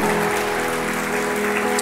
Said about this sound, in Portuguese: Se eu fosse você, eu aplaudi o Senhor, aleluia, nós fazemos parte